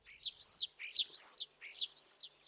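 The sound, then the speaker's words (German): A common starling sings three similar whistling, warbling phrases in quick succession, each a bright, slurred rising-and-falling trill, clear, with no voices present. “Der Star, ein Gesangstalent”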